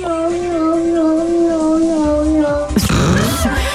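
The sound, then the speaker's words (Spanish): A female cat in heat yowls in one long, drawn-out wail that wavers slightly in pitch, loud, then breaks into a harsher, raspy burst near the end. “Ese es un gatito, una gatita en celo, ¿eh?”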